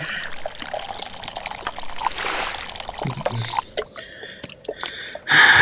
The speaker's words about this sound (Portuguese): Ah, você nunca viu uma cisterna? É, alguém deixou isso aqui pra guardar água. Eu. eu enfim, me passa as garrafas, eu vou encher aqui.